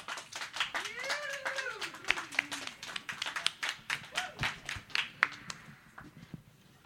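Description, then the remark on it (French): An audience applauds to open an evening show, welcoming a performer on stage, with steady, dense clapping, joined briefly by a few rising and falling whoops and cheers early on, before the clapping thins out and fades toward the end. “sinon, sinon, pour commencer cette soirée, s'il vous plaît, on applaudit euh, notre amie”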